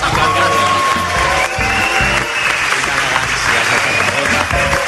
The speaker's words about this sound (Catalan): aquest aplaudiment demostra que és una aula magna.